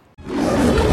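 The roar of Simba, the cartoon lion from The Lion King, bursts in after a brief silence, a loud, rough, sustained growl with a deep, grainy rumble that swells and holds steady to the end.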